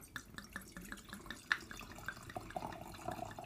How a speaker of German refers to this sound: Genau, und eine dieser Tatsachen ist, dass ich mir jetzt diese Weinflasche aufmachen werde und in mein Glas gießen werde.